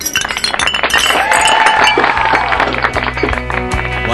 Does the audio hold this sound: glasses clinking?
yes